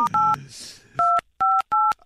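phone number being dialed

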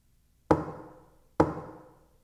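knocking on a window

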